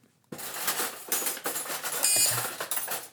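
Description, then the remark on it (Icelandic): Metal cutlery clatters and jangles continuously as someone rummages through a drawer of utensils looking for a spoon, with bright, overlapping clinks for about three seconds after a brief silent start. No voices are heard. “Svona þegar maður finnur ekki alveg skeiðina sem maður ætlaði”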